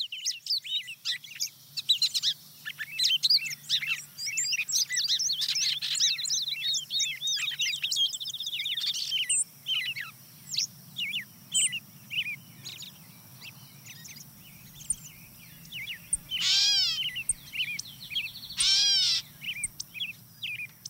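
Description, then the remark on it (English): A busy dawn chorus of several songbirds, including a wood pewee, a song sparrow and a gray catbird: clear whistled phrases, rapid trilling bursts and varied chattering notes overlap continuously, with a low hum underneath and no talking. “Yeah, the wood wood pewee comes in, followed by the song sparrow and, and gray catbird.”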